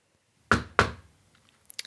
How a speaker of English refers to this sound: That sounds like a Leon knock. Nice and firm. He'd never knock twice.